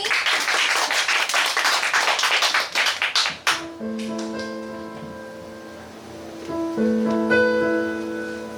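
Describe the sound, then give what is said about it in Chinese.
A crowd applauds to welcome a singer before a song, with dense, steady clapping for about three and a half seconds, then the applause cuts off as music begins with sustained, ringing tones. “掌声欢迎。”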